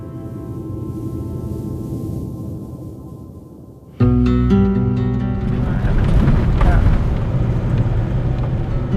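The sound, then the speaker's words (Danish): Steady low rumble of a white Corolla, a civilian car, driving in the countryside outside Kandahar, Afghanistan, heard from inside the vehicle, with wind noise; about halfway through it turns abruptly louder and busier, with faint indistinct voices mixed in. “Vi kører i en civil bil, så vi vækker så lidt opsigt som muligt.”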